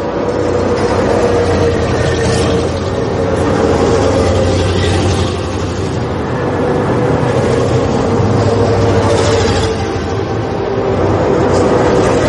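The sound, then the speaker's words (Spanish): A steady stream of buses rolls past on a road at 2 in the afternoon, their heavy engines producing a loud, continuous rumble that swells and eases slightly as vehicles go by. No voices. “Mira extrañada la multitud de autobuses que pasan ante ellos.”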